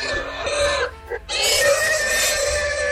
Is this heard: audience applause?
no